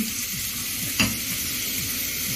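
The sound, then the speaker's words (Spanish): Leafy greens (kale and rocket) being stirred with avocado in a hot pan in a studio apartment: a steady hiss of sizzling with soft, repeated sweeping swishes and one sharp scrape of the utensil midway, with no talking. “Vamos a revolver”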